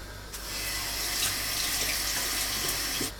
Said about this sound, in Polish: Teraz przemywamy cebulki.